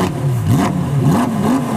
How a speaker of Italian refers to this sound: Ora, provate a immaginare una Ferrari o una Lamborghini senza il sound di un bel V8, V10